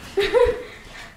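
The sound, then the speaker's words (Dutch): A dog named Chifa gives a single short, high whimpering yelp, rising and then trailing off, with no one talking over it. “Het is mooi hoe de hond Chifa heel wat zorgen lijkt weg te nemen.”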